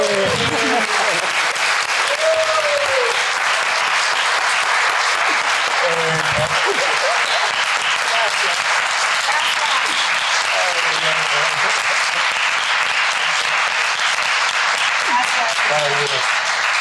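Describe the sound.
Sustained audience applause for two guests on a show, dense and loud, with steady clapping throughout and scattered voices and cheers faintly audible underneath.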